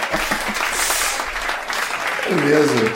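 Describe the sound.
Steady, dense applause for a campaign runs throughout at a fairly even level, a crackling wash of many hands clapping, with a voice speaking over it near the end.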